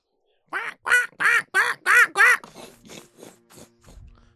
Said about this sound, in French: Un gros corbeau qui vient se percher, puis qui a vu tes rations, puis qui semble être attiré par ce que vous faites, puis il te regarde, puis il semble te voir pris dans la souche.